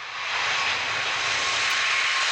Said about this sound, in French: Ah bah pour mémoire, un avion à réaction qui passerait devant nous euh, au décollage, vous connaissez, ça donne ça.